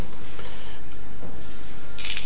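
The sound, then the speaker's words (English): A mobile phone starts ringing near the end during an evening debate at the London School of Economics, a short bright electronic chirp rising over steady background noise, with no one speaking. “Which reminds me that any of you with mobile phones, if you could please um, switch them off, that would be much appreciated.”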